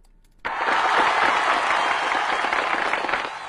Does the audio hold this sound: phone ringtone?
no